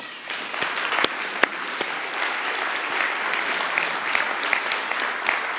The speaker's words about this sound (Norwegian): Så i dag hadde jeg bare lyst til å takke dere skikkelig. Kan ikke vi gi dem en god applaus?